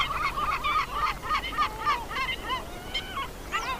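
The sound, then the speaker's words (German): Harsh, repeated calls of a yellow-legged gull: a rapid series of loud nasal, honking cries in an uneven rhythm, some rising and falling in pitch, over a low steady background rumble. “Ja, der Vogel der Woche ist die sehr ambivalente Mittelmeermöwe, die sich übrigens in ihrem Verhalten in gar nichts von ihrer hiesigen Verwandten, der Silbermöwe, unterscheidet.”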